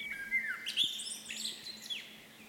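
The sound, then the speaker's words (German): A Eurasian skylark sings a continuous, rapid stream of high warbling and twittering notes. It sounds fairly faint, with a low steady hum underneath and no voices. “Ich hoffe, dass der Gesang der Feldlösche in Zukunft wieder vermehrt zu hören sein wird.”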